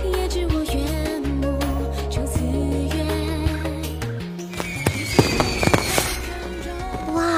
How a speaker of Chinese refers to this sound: 真美啊！据说对着夜空中的烟花许愿，愿望就会成真呢。